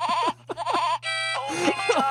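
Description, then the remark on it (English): An AI-generated, synthesized imitation of a goat bleat: two short wavering bleats, a flat buzzy tone, then a longer warbling cry, all loud over a steady low electronic hum. “robots don't know what real goats are.”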